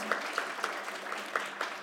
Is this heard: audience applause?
yes